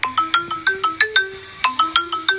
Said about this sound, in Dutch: Maar dan de deurbel gaat weer.